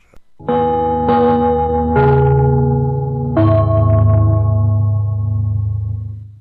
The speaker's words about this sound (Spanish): Atención a la red deportiva de emisoras amigas de Radio Portales. Al toque de gong, sírvanse conectar.